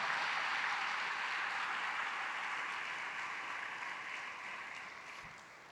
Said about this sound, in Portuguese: Aleluia, aplauda Jesus.